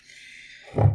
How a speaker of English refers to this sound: Taking a sip of this week's beer.